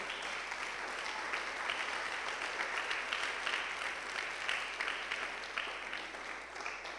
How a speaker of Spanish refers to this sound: Qué tremendo, ¿verdad? un aplauso al Señor, hermano, qué lindo eso.